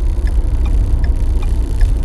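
A car's turn signal ticks steadily, five crisp clicks at an even rhythm, over the low rumble of the engine and road noise inside the cabin. No one speaks.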